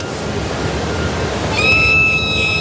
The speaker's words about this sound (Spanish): Ahí también nos responde nuestra amiga ballena de la mañana, señores.